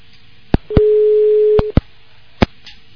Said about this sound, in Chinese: 好，可能因为太多的人打这个电话了，可能憋住了，这个电话线呢憋住了，所以这是，哎。